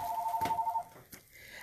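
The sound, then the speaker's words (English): A phone's electronic ring tone warbles in quick, evenly pulsed beeps for under a second, then cuts off, followed by a couple of soft clicks. “And then we went on to, uh, sorry about my phone.”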